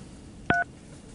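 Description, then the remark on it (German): A single short telephone keypad tone, a crisp dual-pitched beep lasting a fraction of a second, sounding clearly and alone over faint background hiss. “Oh, ich habe wieder ein Amt.”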